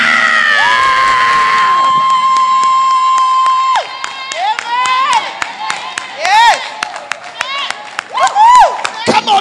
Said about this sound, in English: At the count of three, I want you to jump on your feet, clap your hands, open up your mouth, and give God a shout.